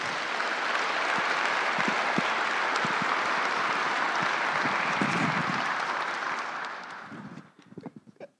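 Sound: applause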